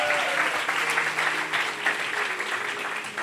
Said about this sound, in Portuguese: Será que você pode aplaudir Jesus por isso?